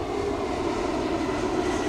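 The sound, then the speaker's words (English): A steady, loud roar of a large airplane passing overhead, a broad rumbling engine drone that holds constant throughout with no voices. “Big plane, Sergeant.”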